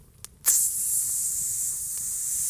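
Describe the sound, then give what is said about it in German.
A creeper's fuse hiss, made just before it explodes, starts abruptly after a couple of faint clicks and holds as a steady, loud, bright hiss for about two seconds, with no talking. “Du hörst sie, sie machen auch sonst kein Geräusch, außer sie sind sehr nah von dir. Und dann machen sie folgendermaßen.”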